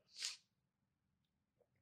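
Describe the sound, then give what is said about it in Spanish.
A single sharp sneeze bursts out, loud and breathy, then fades into near silence with only a couple of faint small noises afterward. “Uy, te voy a estornudar.”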